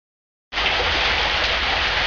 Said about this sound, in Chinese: 李宝莉到汉正街辞工那天，正下雨，雨点蛮大，落在棚子上噼里啪啦的响。